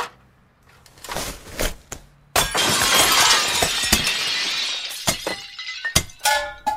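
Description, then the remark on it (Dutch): A window pane is smashed with heavy axe blows by a man on a ladder set against a building's facade, for the show De Verborgen Microfoon: a loud crash followed by a long spray of shattering glass, then scattered shards clinking and a few more sharp knocks and breaks. “De medewerker van de verborgen microfoon klimt op de ladder, heeft een bijl in zijn handen.”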